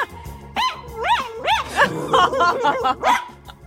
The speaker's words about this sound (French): Alors, on va essayer tout de suite, puisqu'on a récupéré un enregistrement de ton chien Vivi, Brooklyn.